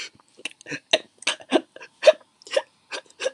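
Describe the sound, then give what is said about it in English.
A voice imitates a crying child's whimpering: a string of about nine short, breathy, hiccuping sobs in an uneven rhythm, fairly loud and with no words. “like that's how I was like like you know like a little kid when he cries and you whimpering? Yeah, I was whimpering.”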